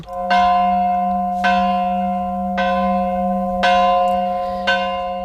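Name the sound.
church bells ringing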